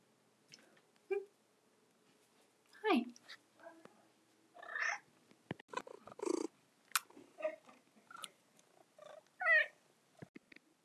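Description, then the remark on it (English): Three domestic cats, Mama, Angela and Uno, meow in short, separate calls with pauses between them, fairly loud, over a low purring hum as they are petted; a few brief clicks and rustles scatter among the meows. “That second meow was my other cat, Uno.”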